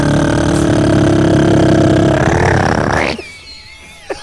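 A roulette wheel, spun to choose the next category in a game, spins with a loud, steady whir and rapid ticking that quickens before cutting off abruptly, leaving a short, faint tail with one small click.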